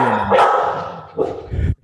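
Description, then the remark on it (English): A female Australian Shepherd barks loudly, a few sharp, raspy barks in quick succession with brief gaps, then cuts off. “That's my self-care, my dogs.”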